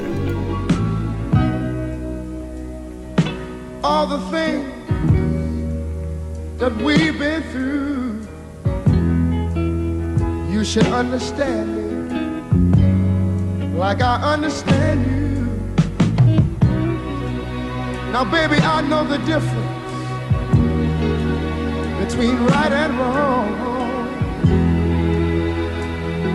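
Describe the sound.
A 1970s soul ballad plays at full volume, a sung lead vocal riding over warm bass, sustained chords and a steady, unhurried beat, with the voice swelling into emotional phrases throughout.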